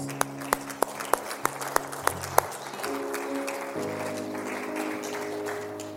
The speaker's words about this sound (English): So I, I would like, if you prayed that prayer, everybody, let's join along. Let's give a round of applause.